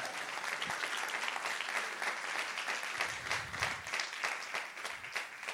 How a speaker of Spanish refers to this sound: Vamos, a darle un aplauso más fuerte a Jesús.